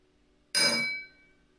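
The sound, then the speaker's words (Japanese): A single bright, sharp clink of drinking glasses touching in a toast, with a shimmering ring that fades over about half a second. No voices, just the toast sound alone. “皆さんグラスのご準備はよろしいですかほらそこ飲み物入ってないんじゃないいいねじゃ乾杯”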